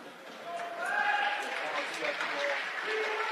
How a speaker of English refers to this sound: Westwood faithful given Patriots a round of applause for a job well done this evening.